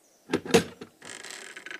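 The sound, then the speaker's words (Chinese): The door of an old landlord's bedroom is unlatched from inside by his son with a couple of sharp knocking clicks, then swings open on a long, scratchy creak that holds steady for nearly a second. No one speaks. “一会儿，老地主的儿子来开门。”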